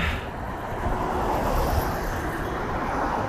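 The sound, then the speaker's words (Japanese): A steady, fairly loud rumble of road traffic at a bridge by the sea, cars passing in a continuous wash of tire and engine noise, with no distinct pauses and no voices. “まあこんな感じで車の音の方が大きく聞こえるでしょうけれどもちょうどね海のなんかこういい感じのね音があって”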